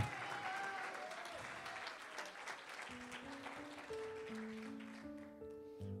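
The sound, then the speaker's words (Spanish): A large church audience applauds loudly and steadily for God Almighty, a dense wash of clapping while sustained organ or keyboard tones swell underneath in the second half. “Vamos a darle un aplauso fuerte al, al Dios Todopoderoso.”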